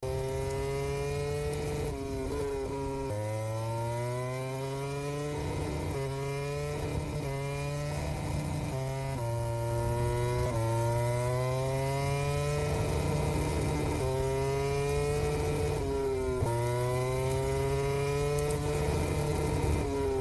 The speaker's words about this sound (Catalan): La distorsió que sents és el moment que Maverick Viñales dona gas intermitentment amb molta força